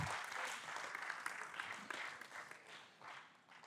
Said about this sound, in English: Let's give a round of applause to those guys in the back. You guys are awesome.